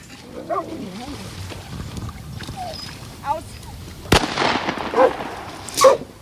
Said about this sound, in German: Und da brauchte es dann noch eine kleine Verfolgungsjagd durchs Wasser und noch zwei Schüsse mehr.